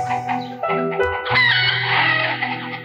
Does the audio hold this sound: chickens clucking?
yes